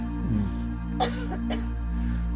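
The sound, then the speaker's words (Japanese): Two short, breathy coughs about half a second apart, moderately loud, over a steady low hum with no talking. “咳が出たりねすることがありますねどんどん出してみて”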